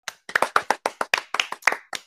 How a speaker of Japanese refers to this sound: ありがとうございます。ありがとうございます。はい。うちも今頃拍手してると思います。